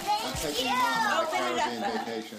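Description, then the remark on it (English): Children excitedly opening presents on the first night of Hanukkah: several young voices chatter and squeal over one another, high-pitched, in a continuous lively burst. “And that is the sound of my kids opening up presents on the first night of Hanukkah.”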